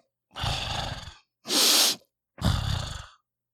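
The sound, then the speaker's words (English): A voice imitates someone sniffling their nose: three loud, wet nasal sniffs one after another, each about half a second to a second long with short pauses between, with no talking. “Now imagine as you're trying to express that idea, uh, someone keeps sniff sniffling on their nose.”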